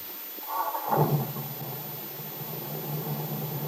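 A new car's engine cranks and catches with a brief rising whir, then settles into a steady, smooth, low idle hum that continues evenly to the end, moderately loud with no voices.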